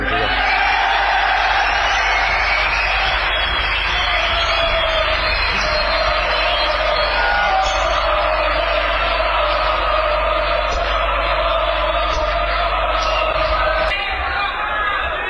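An audience applauds steadily, a dense loud wash of clapping blended with crowd chatter and scattered cheers that holds for about fifteen seconds before easing slightly at the end.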